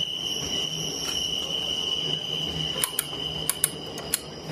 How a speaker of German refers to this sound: In der Eisenbahn in der deutschen oder auch österreichischen, wahrscheinlich auch Schweizer Eisenbahn hat oder hatte dieses Geräusch seinen Lebensraum und zwar im WC. Es ist der Trockenseifenspender.